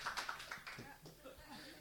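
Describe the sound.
A short burst of audience applause for a performer marking 20 years since first going on stage, dense scattered clapping that mixes with people talking and thins out as the voices take over.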